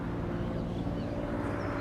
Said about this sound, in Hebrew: הנה הגיעה משאית, איזה אה, זה לא, זה לא.